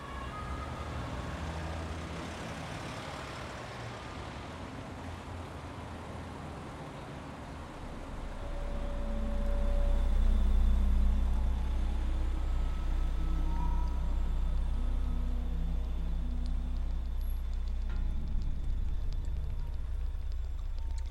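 Steady road traffic rumble with vehicles passing, a low engine drone swelling louder midway, while a siren wails faintly, no voices present.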